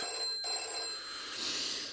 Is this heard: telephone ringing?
yes